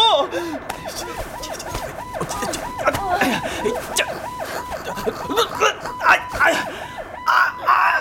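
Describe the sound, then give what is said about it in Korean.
An ambulance siren yelps in a fast, steady up-and-down cycle throughout, loud, with busy background noise and bursts of commotion around it, as the ambulance carrying a patient is stuck in traffic after a chain collision ahead. “이 구급차 얼른 세워요. 안 그러면 뛰어내릴 겁니다.”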